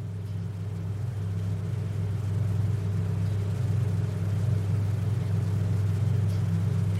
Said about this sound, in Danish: er det her for en lyd? Det lyder lidt som et køleskab. Mm, det er også en slags køleskab. Et kæmpestort køleskab til at holde døde mennesker kolde.